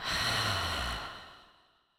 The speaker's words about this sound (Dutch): Je mag je uitademing hoorbaar maken. Adem nog één keer krachtig in door je neus. Open je mond en laat weer helemaal gaan.